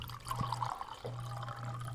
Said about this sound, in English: Okay. Sorry, I'm just pouring another wine.